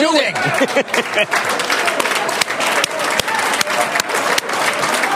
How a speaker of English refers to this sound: All right, there it is. The claps are uh, building here. Of course, we are going to get an opening bell.